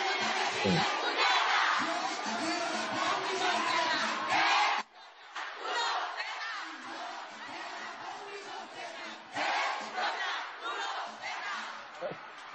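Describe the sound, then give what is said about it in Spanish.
A large crowd sings along together, a dense, loud wash of voices filling the whole stretch, briefly dropping off midway before surging back, slightly muffled as if recorded from within the audience. “Estaban cantando, diciendo la canción, quiero la combi completa pues, y las tres palabras.”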